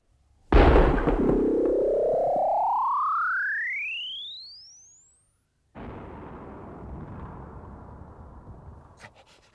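A loud, gunshot-like blast, a shot fired at the largest poplar tree, opens into a long whistle that climbs in pitch and fades away; after a short silence, a rough rushing, crackling noise follows to the end.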